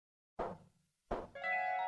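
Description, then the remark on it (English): Two separate quiet, stealthy thudding knocks on a front door, spaced about a second apart, each fading quickly. A steady ringing tone follows the second knock and continues to the end. “And at the same moment, a knock, so quiet and stealthy as to be scarcely audible, sounded on the front door.”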